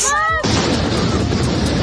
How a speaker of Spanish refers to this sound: han impactado en dos edificios de la ciudad provocando una gran explosión. Son dos bloques de oficinas